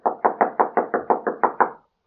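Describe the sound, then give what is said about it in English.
A rapid series of nine firm knocks on the wooden door of Father Perichon at night, evenly spaced, followed by a brief pause and the start of another knock. “There was no answer. He tried again.”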